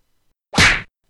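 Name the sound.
slap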